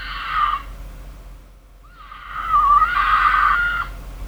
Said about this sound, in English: this is an audio podcast, so I'm gonna pull up a mountain lion scream.